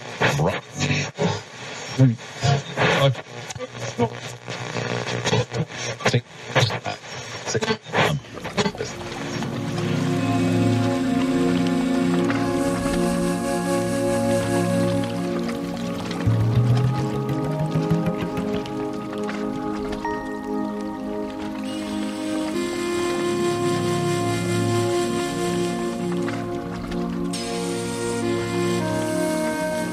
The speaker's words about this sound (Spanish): los curtidores de Fez.